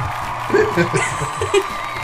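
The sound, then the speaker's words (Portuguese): A dense crowd roars throughout, with cheering voices, whoops and scattered shouts blending into a steady wash of noise, a few louder yells poking out midway. “A, a, nação furry está gritando, vocês estão ouvindo?”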